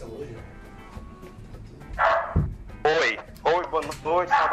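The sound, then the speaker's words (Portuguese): After a couple of quiet seconds, a dog lets out a run of loud, sharp barks, four or five bursts in quick succession over faint background noise. “Guarda o cachorro aí, vai.”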